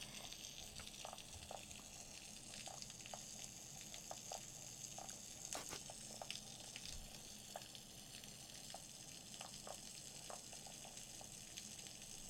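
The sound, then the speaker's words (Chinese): Underwater recording of snapping shrimp at Chaojing, Keelung: a steady, dense crackle like frying, punctuated by scattered louder snaps, with a faint low fish chorus murmuring beneath. No one speaks. “所以所以说它基本上在这里面有两有三种声音， 一个是枪虾，枪虾就是刚刚我们一开始听到 对 咚一声，我我说好像是在敲门， 对 然后老师说是笔掉下去的那个声音， 对对对，然后 然后还有个声音是鱼类合唱的声音。”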